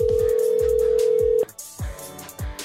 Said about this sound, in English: Please answer the phone.